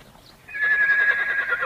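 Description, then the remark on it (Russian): A horse whinnies loudly, a single high, sustained neigh that starts after a brief quiet moment and holds steady for about a second, as Cossacks groom a long row of horses on a sunny morning. No one speaks. “Дюжи и казаки в одних нижних цветных рубахах чистили лошадей, и солнце играло на их обнаженных по локоть руках, на загорелых шеях, в разлитой кругом воде.”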